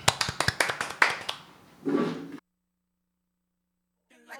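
A short round of hand clapping thanking the previous DJ for their set on a radio show, a dozen or so sharp claps in quick uneven succession, then a brief noisy swell before it cuts to silence, with a faint voice at the end.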